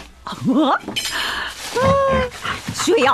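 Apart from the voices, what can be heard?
dog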